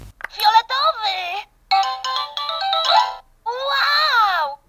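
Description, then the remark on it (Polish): A high-pitched electronic voice from a Fisher-Price toy calls out three short, bright Polish exclamations, "wow", "ekstra", "brawo", each with a rising-and-falling sing-song pitch, separated by brief pauses and fairly loud. “To jest akurat e, może e, nie do końca dobry przykład, bo czasami trafia się w tej zabawce firmy Fisher Price, to jest antyreklama, na takie okrzyki wow, ekstra, brawo,”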